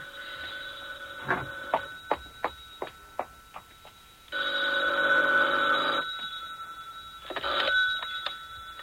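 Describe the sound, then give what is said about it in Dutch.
A string of quick mechanical clicks gives way to a loud, rattling telephone bell ring lasting a couple of seconds, followed by a shorter second ring, for an incoming call from Paris; no voices. “Telefoon uit Parijs voor meneer Harel.”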